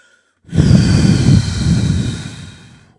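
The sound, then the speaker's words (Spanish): A voice imitates the wolf of The Three Little Pigs blowing with all its strength on the pigs' little wooden house: one long, forceful, breathy blow lasting over two seconds, loud at first, then gradually tapering off, with no words. “El lobo soplaba con todas sus fuerzas y aunque esta casita de madera resistió un poco más que la de paja, mm, también acabó por caer al suelo a causa del huracán que suponían los soplidos del terrible animal.”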